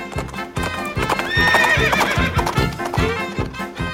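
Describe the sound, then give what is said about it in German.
A pony gallops after the Gingerbread Man, its hooves pounding out a quick, steady rhythm of heavy thuds, and a loud, high whinny rises over the hoofbeats midway through. “Drei Bissen und du bist weg, sagte das Pony und begann, dem Lebkuchenmann hinterher zu galoppieren.”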